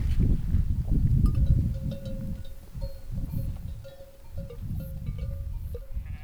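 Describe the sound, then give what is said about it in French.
A flock of sheep bleats in overlapping calls, while a steady tinkling of bells rings out across an open alpine pasture, the whole scene busy and continuous. “Mes chers brebis, sachez qu'aujourd'hui, dans notre alpage, la chaume ne sera plus autorisée.”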